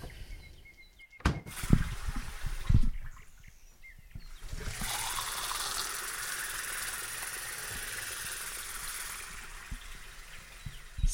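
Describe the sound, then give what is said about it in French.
A few clunks and knocks, then water gushes steadily from a bathroom sink tap, a continuous rushing stream that keeps going to the end with no voices. “Ça, c'est le son de l'eau qui coule du lavabo de la salle de bain dans lequel nous nous lavons souvent les mains avec un petit pain de savon saveur abricot.”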